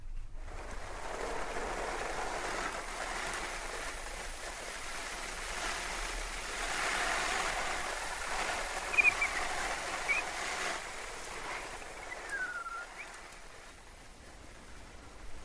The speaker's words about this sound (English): So now I'm going to water my tomato plants. Need a bit of watering. Just after being dry for the last few days for an outside tomato plant so I could water them.